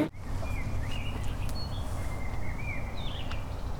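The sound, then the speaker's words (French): Open outdoor park ambience in the Parc du Courneau at Canéjan, with a steady low rumble of traffic or wind, and faint birds chirping and whistling intermittently in the background. “Et où sommes-nous eh Bien écoutez, nous sommes dans, la, dans le parc du Courneau à Canéjan.”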